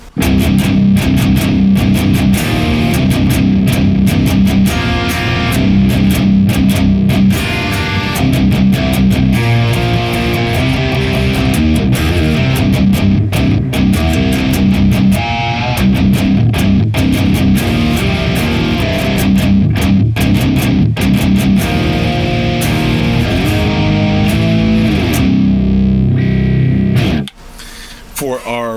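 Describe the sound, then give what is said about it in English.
A loud, heavily distorted electric guitar plays chugging riffs and sustained chords continuously for nearly the whole stretch, dense and saturated, before cutting off abruptly near the end. It runs through a Neural DSP Archetype Nolly, with the Plasma Kraken on the left and the SERP Uber 75 EL84 on the right, via a stereo pair of Boss IR200 units. “And then when we add in the stereo pair of Boss IR200 Thermi FA1 Uber 75 with our Neural DSP Archetype Nolly already running, the Plasma Kraken on the left, and the SERP Uber 75 EL84 on the right.”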